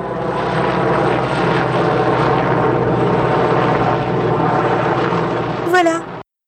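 A helicopter drones loudly and steadily overhead, its engine and rotor noise constant throughout, then a brief rising whine near the end before the sound cuts off abruptly.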